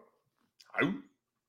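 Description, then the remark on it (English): One short, sharp dog bark rings out, standing alone against near silence with a bit of breathy rasp as it trails off. “Ruff, ruff.”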